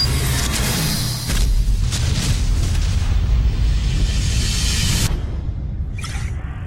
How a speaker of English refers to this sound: As any good trailer should, it finishes with explosions.